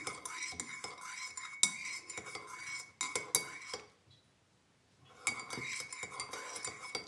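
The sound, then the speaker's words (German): A spoon clinks and scrapes rapidly against the inside of a cup while stirring morning coffee, in quick metallic bursts, pausing briefly for about a second before the bright clinking resumes. “So, na dann, Prost Kaffee, würde ich sagen.”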